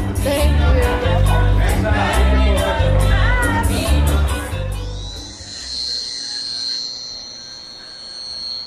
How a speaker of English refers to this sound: That's the sound of Chops Barbershop in downtown Las Vegas.